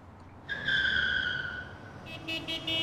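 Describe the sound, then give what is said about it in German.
Car tires squeal loudly in a sustained high-pitched screech lasting over a second as a car arrives, then a series of shorter, choppy squeals follow over engine rumble. “Hörst du dieses Quietschen? Ich glaube, er kommt schon.”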